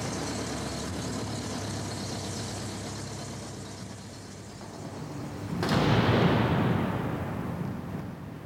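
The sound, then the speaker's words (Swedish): Cars carrying passengers to the Rikskansliet drive along, a steady low engine rumble and road noise that swells noticeably louder partway through as a vehicle seems to pass by, with no voices. “och så packades vi in i bilar och transporterades till Rikskansliet.”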